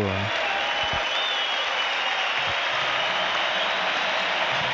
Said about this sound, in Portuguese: Aplausos para os jogadores do Grêmio que conquistaram importante vitória nesta noite de quarta-feira aqui na Arena.